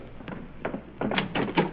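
A door opens and shuts with a quick series of clunks and rattles, a soft knock first, then a heavier cluster of bumps ending in a firm close.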